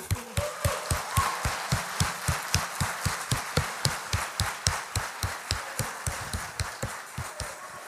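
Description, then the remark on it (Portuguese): An audience applauds in honour of the legacy of Christian leaders, among them Bud Wright, clapping together in a steady, even rhythm, roughly three sharp claps a second, each with a low thud beneath it, continuing loudly throughout with no one speaking. “Você pode aplaudir?”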